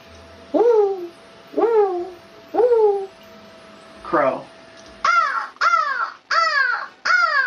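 An owl calls about seven times in a steady series, each note a short, loud, harsh hoot that swoops up and falls away, with brief pauses between and no other sounds.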